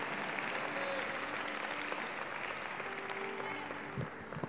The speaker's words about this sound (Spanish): Gracias, gracias. aplausos para el Señor.